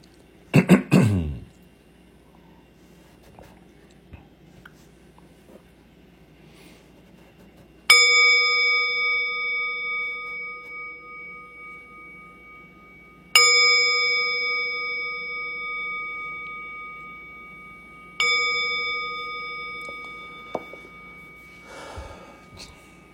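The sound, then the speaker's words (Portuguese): A meditation bell is struck three times during a zazen practice, about five seconds apart, each strike a bright, overtone-rich ring that slowly fades, following a brief breathy sound at the start. “No segundo toque a gente faz a reverência e no terceiro a gente volta e coloca então as mãos no colo”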